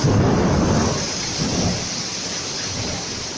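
A heavy cloudburst on the expressway through Koper roars as a steady, dense hiss of rain, with a deep rumble of thunder swelling at the start and rolling on underneath, while a car is pulled over and parked at the roadside. No one speaks.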